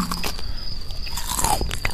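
A person bites into and chews pork shoulder, with wet crunching and smacking sounds repeating steadily for a couple of seconds, no voices.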